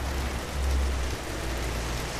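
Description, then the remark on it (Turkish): Steady rain falls outside, a continuous even hiss with a low rumble underneath, moderately loud and unbroken for the whole stretch, with no voices. “Ee, yağmur umarım sesimi bastırmıyordur.”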